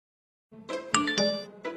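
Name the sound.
text message notification chime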